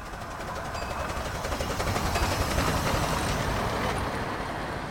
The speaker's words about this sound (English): I got the sound of a steam train. I got a couple rounds of that.